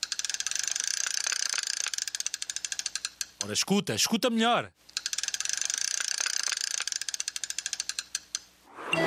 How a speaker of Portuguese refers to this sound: E a resposta correta é. Alguém a enrolar uma linha de pesca.